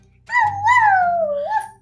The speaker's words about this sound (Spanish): Sin querer, derramó una lagrimita y comenzó a aullar como chacal.